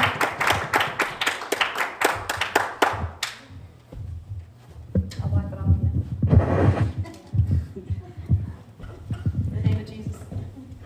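An audience claps hands in a brisk, steady rhythm for about three seconds, roughly a dozen sharp claps in unison, then stops as voices and murmuring take over.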